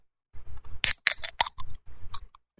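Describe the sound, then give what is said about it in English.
A black and white drink can being cracked open: several sharp metallic clicks and a short fizzy burst of the tab giving way, over low handling rumble, with no talking. “All right, let's crack it open.”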